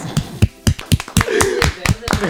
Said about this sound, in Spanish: Eso lo entendió, muy bien, aplaudí doble, Bien, bien, bien.